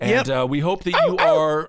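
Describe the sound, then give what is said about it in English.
A person speaks and then mimics a dog with a couple of short, voiced bark-like yelps, fairly loud, blended right into the talking. “Whoa, that's a that's a dog bark.”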